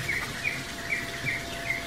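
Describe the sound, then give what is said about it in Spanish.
Caged canaries chirp in short, bright notes repeating at a steady, quick rhythm, about five chirps, over a constant background hiss. No one speaks. “Tiene jaulas con canarios.”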